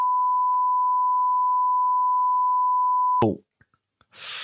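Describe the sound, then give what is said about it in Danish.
A steady, loud censor bleep tone holds for about three seconds, then cuts off abruptly, followed by a brief low thump, near silence, and a burst of hiss at the end. “bip færdigt.”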